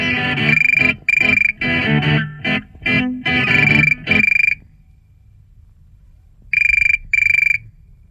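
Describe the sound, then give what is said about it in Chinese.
A loud, harsh electronic tone from a 1977 vinyl record, with a buzzy, distorted quality, pulses in a rapid series of bursts like a mobile phone ringtone, pauses into near silence, then returns for two more short beeps. “我说：“哎，这个好像电话铃声一样的，像手机的铃声。”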